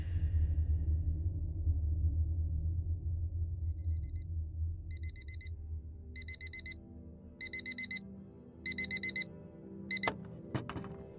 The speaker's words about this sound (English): I sprang out of bed as the alarm rang at the crack of dawn.